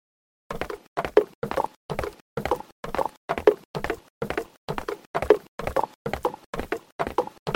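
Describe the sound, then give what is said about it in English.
Horse hooves clip-clop in a steady, even trotting rhythm as knights ride, each hoofbeat a sharp hollow knock, clear with no voices or other sounds around them. “in an adventure story, with knights bravely trotting on their hair.”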